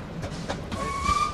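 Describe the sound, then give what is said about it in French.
Steady low rumble of the Bas-Berry train running on tracks, heard from inside a carriage as it passes a dirt-track crossing for farmers, with a thin high whine rising over the noise partway through and holding to the end. “À bord du train du Bas-Berry”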